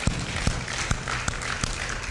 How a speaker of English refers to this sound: And everybody said, Amen, amen and amen. Give the Lord a hand clap one more time.